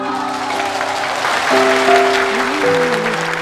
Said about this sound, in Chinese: 你们的掌声唤起了我的记忆，我的听力又回来了，欢呼声！